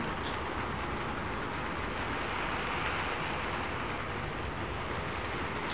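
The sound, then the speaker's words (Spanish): Steady rain drums on a metal roof of large metal sheets held up by wooden beams, in a dense, unbroken patter, fairly loud, with faint scattered ticks of heavier drops and no voices. “La lluvia no ha cesado.”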